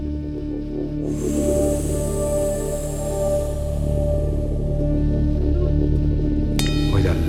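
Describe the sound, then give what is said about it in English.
Sustained synthesizer tones layered over a low droning bed, with a bright shimmering part entering early and slowly fading, then a new bright synth note near the end. Long reverb tails wash everything together. “Now, after this, I added some synth part, part and uh, sounds like this.”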